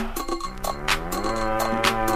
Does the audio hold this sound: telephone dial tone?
no